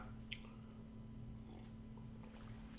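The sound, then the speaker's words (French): A quiet sip of hot coffee, with a few soft wet slurping and swallowing sounds over a steady low hum. No one speaks. “Et là, toutes les personnes qui aiment faire des plans prennent une bonne gorgée de café avec moi.”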